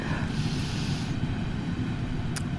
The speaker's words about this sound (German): Jetzt kommt noch mal eine S-Bahn im Hintergrund. Mal gucken, ob du die hören kannst.